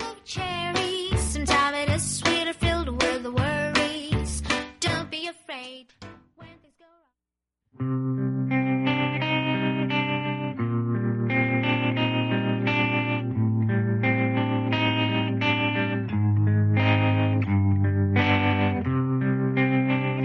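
A TV drama soundtrack song plays: bright, punchy guitar-like notes fade into a brief silence, then a fuller, steady arrangement of sustained chords over a warm bass line continues loudly.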